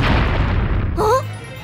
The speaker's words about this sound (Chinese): 什么声音？ 是一艘黑色的海盗船，船上系着黑头巾的海盗们正对着神秘岛开炮呢。